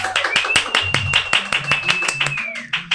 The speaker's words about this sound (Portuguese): Uma salva de palmas!